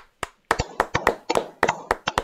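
A short round of hand clapping: about a dozen sharp, crisp claps in a quick, slightly uneven rhythm, moderately loud, with no voices.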